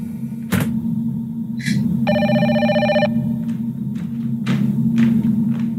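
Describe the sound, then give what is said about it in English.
A telephone rings once in a single bright, buzzing burst lasting about a second, over a steady low rumble with a few dull thumps before and after. No one speaks. “My phone rings.”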